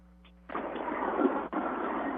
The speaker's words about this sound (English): It's better today with that regard, but yeah, there's one flying right over me now. Helicopter. One of those helicopters. Yes, sir. Let's see if we can hear it.